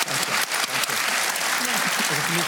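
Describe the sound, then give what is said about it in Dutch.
Sustained audience applause for the panel speakers at the close of a discussion, a dense, steady wash of many hands clapping at a fairly loud level, with faint voices murmuring underneath. “Maar voor ik dat doe, heel graag van u een hartelijk applaus voor zowel”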